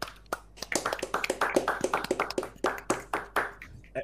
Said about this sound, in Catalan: Benvinguts a l'episodi número 4. O sigui, ja portem un mes de podcast. O sigui, jo crec que això es mereix un aplaudiment.